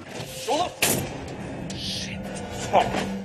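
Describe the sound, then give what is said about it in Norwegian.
Two sharp, loud gunshots ring out about two seconds apart over a steady hiss of background noise, with brief shouted voices mixed in, from the film about the Nokas robbery of 2004. “Dette er lyden fra filmen om Nokas-ranet som skjedde i 2004.”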